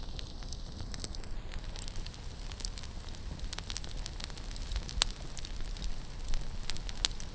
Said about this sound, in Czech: Sedám si k ohništi, abych se trochu zahřál. Ve svém stavu nejsem schopný polemizovat nad tím, kde se tu vůbec otevřený oheň vzal.